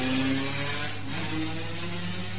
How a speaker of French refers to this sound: Merci la moto, nous sommes en direct.